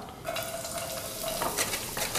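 Diced shallots sizzle steadily as they are sautéed in a hot pan on a gas stove, a continuous crackling hiss with brief scraping stirs partway through; no one speaks.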